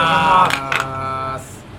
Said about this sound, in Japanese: まあ今思いっきりジョッキーの音ですね